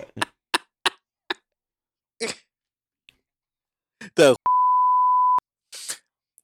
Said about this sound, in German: Nee, ach, Moment, das kommt ohne das Bild irgendwie verfänglich. Piepen wir das.